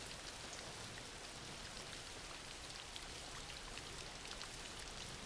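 Steady rain falling, a dense, even hiss with scattered brighter droplet ticks throughout, quiet and unbroken, with no voices.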